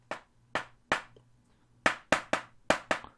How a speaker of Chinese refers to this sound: 开始听到了敲击玻璃的声音，车里的人全都倒抽了一口气。